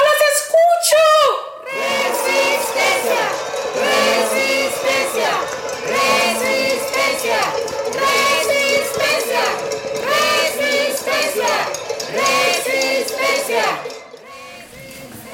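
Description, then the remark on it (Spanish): A large crowd clamors and shouts in an uproar, many voices overlapping in a loud, sustained roar, with a few higher-pitched cries rising out of the din at the start. “se escuchó el clamor de toda la multitud hasta los lugares más recónditos del territorio.”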